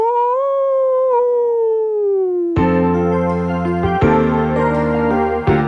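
A single long wolf howl, loud, holds steady then slowly sinks in pitch before cutting off abruptly into a burst of sustained music chords.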